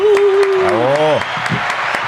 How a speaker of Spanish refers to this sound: No es que se le olvide acá mi tocayo, el aplauso.